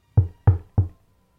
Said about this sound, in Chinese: 直到第四次，他才鼓起勇气，发着抖，拿起铁门锤，轻轻地敲了敲门。